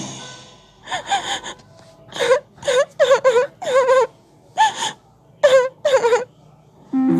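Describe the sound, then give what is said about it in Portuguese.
A voice acts out a sad puppet crying in a cage, breaking into a series of short, gasping wails and sobbing bursts with pauses between them, fairly loud, like exaggerated theatrical weeping. “Pinóquio ficou muito triste por não ter ouvido Gepeto e ido diretamente para a escola. Então ele começou a chorar.”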